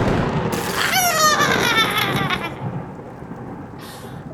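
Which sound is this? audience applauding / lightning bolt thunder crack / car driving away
lightning bolt thunder crack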